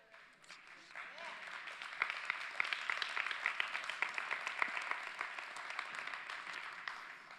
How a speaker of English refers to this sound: We all celebrate and applaud.